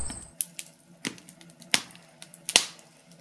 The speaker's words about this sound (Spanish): El de una chimenea quemando leña que remite claramente al icono de una noche de invierno dentro de la casa abrigado sin pasar frío.